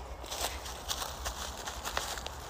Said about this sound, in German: Es sind gerade einfach so sechs Pferde an mir vorbei. Okay, krass.